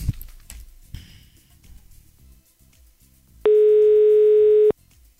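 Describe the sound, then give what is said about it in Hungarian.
A loud, steady telephone dial tone sounds for just over a second while calling a listener, preceded by quiet rumbling and a few soft clicks, with no one talking. “Uh, hívjuk a hallgatóját közben.”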